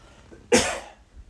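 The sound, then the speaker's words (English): A single sharp throat clearing by a person with a cough, a brief rough burst lasting about half a second, with no talking around it. “I'm gonna just I'm gonna clear my throat.”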